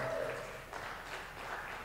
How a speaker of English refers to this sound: Let's give our young adults another hand clap, please.